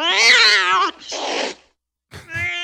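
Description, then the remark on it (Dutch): A cat meows loudly in a long, wavering, drawn-out cry, followed by a breathy hiss-like burst, a short pause, then a shorter second meow. No one speaks. “Eh, ja, eh, de katten die zeggen natuurlijk altijd...”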